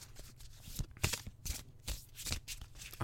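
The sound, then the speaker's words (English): Crisp riffling of a deck of playing cards being shuffled, with repeated bursts of papery flutter and slaps about every half second, heard alone without any talking. “so I'm going to give the cards a really good shuffle”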